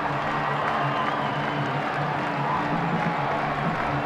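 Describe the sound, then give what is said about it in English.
A football crowd on its feet cheering in the 36,500-seat Canvas Stadium, not quite half full, student section in full throat, at the kickoff of a Blue Raiders game; 53 degrees, cloudy after rain, southeast wind at 7 mph. A steady, dense roar of many voices at even loudness, no single voice standing out. “Crowd on its feet here in the 36,500 seat Canvas Stadium, and it's going to be uh, not quite half full today.”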